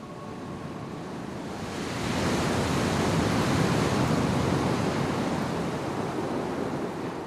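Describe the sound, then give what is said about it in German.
Loud, roaring sea surf swells up after a couple of seconds into a continuous churning wash of foaming, raging waves, broad and noisy with no pauses. “Das Meer, das noch da ist, schäumt und tobt wie wild.”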